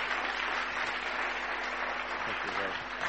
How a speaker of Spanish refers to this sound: Muy bien, muchas gracias. Un fuerte aplauso.